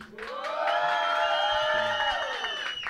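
An audience cheers and whoops loudly and steadily for about three seconds during a vote, many voices blending into a sustained roar with high-pitched shouts rising above it.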